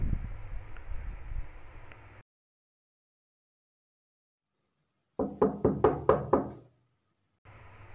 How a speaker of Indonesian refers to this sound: kalau misalnya teman-teman tahu terkait lampor ini yang seperti diceritakan ceritakan oleh orang-orang lampor ini merupakan suara ketukan